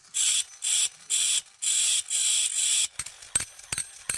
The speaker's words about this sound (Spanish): Ya me dijo. Hay que sacarlos a todos de la legislatura, me dijo. Hay que votarle en contra en primaria. Me acaba de decir el monito. Ustedes no lo entendieron, ustedes no entienden el lenguaje del mono.